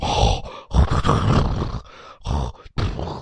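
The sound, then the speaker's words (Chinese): A voice imitates a horse panting: a run of loud, breathy, rasping bursts in an uneven rhythm, each heavy gasp broken by short pauses, with no ordinary talk. “这马呀还在那儿喘气儿呢”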